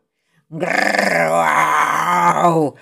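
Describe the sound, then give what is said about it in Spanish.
A person's voice imitates a werewolf's growling bark: one loud, drawn-out snarl lasting about two seconds, rough and strained, with nothing else around it. “ladró el hombre lobo con cara de bobo.”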